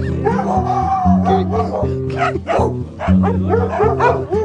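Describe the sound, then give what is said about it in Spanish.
Several dogs bark and yip over one another in a steady, overlapping, loud chorus, with some whining, howl-like tones mixed in throughout. “Hay muchos perros.”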